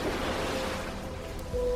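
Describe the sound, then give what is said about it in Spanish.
A steady, soft wash of Mediterranean Sea waves with a breezy sea-breeze hiss, at the island of Mallorca, Spain, continuous over a short stretch and slightly swelling toward the end, with no voices. “emitimos desde la isla de Mallorca en España, rodeados del mar Mediterráneo azul y su brisa marina.”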